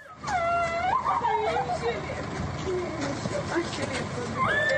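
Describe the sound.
Loud voices wail and cry with rising and falling emotional sobs of joy and weeping as a 21-year-old French-Israeli woman, freed after 55 days of captivity by Hamas, is reunited with her mother and brother, over a busy background of crowd chatter and commotion.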